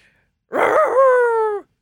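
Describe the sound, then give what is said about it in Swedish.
A person imitates a dog with a single drawn-out, whiny vocal sound, fairly loud, rising briefly then holding steady for about a second before stopping. “Sjukt duktig på att göra hundljud är jag.”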